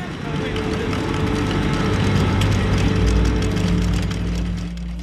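Heavy industrial machinery runs loudly and without pause, a dense low rumble and broad mechanical roar holding steady throughout, with faint clattering texture on top.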